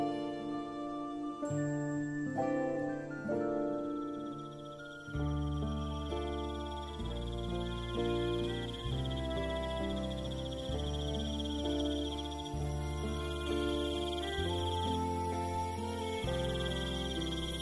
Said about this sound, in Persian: صدای زنجره های باغ و هوای خفه خوابگاه نمیذاش بخوابم البته در واقع ربطی به زنجره های بیچاره نداشت